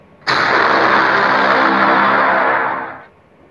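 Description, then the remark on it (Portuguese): A single deep, booming brass horn blast in the style of the film Inception hits abruptly, then holds loud and heavy for nearly three seconds before fading out, a dramatic cinematic braam with no voices. “Botão Inception.”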